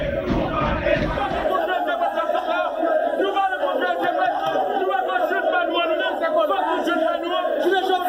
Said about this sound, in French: Insultes, reproches, propos malencontreux, les militants ont fait entendre leur colère.